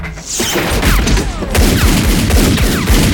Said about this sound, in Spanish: Me están cagando a tiros. Parece que esta vez no me quieren, amigo.